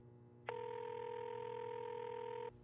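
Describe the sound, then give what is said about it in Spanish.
A single steady phone ringing tone sounds for about two seconds as a call is placed on a phone held to the ear, then cuts off abruptly, leaving a faint background hum. “Dio un tono y entonces se detuvo.”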